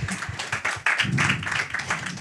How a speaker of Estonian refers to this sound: selge, aga väga põnev, aitäh, teeme aplausi.